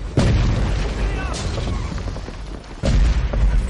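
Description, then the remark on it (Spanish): Several loud explosions: a heavy blast opens, a smaller burst follows, and another deep boom lands near the end, each leaving a low rumbling tail in a noisy, chaotic scene. “Se producen más explosiones.”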